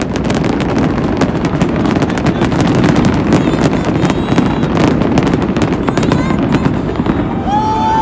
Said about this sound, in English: And I think that was it. That was it for the fireworks.